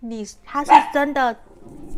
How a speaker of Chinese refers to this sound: 不好意思，刚刚有小狗狗，我家养的小狗狗的叫声。